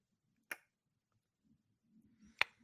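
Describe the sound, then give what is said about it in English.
Two sharp, crisp clicks about two seconds apart, a mechanical remote's play button being pressed, distinct over a faint, low background murmur. “that's me hit and play.”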